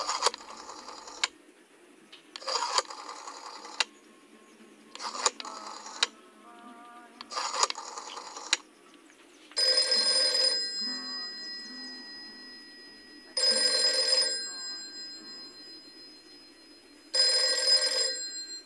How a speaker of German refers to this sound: das Telefon. Sie wählte, wusste, dass sie etwas Gutes, der Freundin einen großen Gefallen tat.